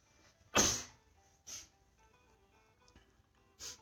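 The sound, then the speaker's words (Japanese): A single loud, sudden sneeze bursts out abruptly, followed by two softer breathy sounds over a quiet background hum. “なんか急にくしゃみが出ました。失礼しました。”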